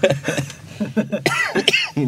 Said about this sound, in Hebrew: איזה שיעול, משהו.